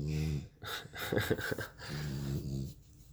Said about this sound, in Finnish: Joo, jos tämä tietysti tästä kuuluu tommonen kuorsaaminen, niin mun koira nukkuu tossa ihan vieressä.